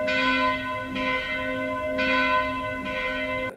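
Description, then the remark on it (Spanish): A church bell tolls four strong, evenly spaced midnight strokes about a second apart, the chimes of the twelve-wishes tradition where one grape is eaten per stroke, each rich ringing tone carrying into the next, loud with no voices. “Este, eh, esta costumbre, esta tradición de los doce deseos con las campanadas.”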